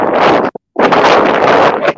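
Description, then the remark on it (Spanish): Loud, blustery wind buffeting a caller's microphone, a dense roaring rumble that cuts out abruptly for a quarter second before gusting back in just as strong. “Entró, entró ventoso. Entró ventoso.”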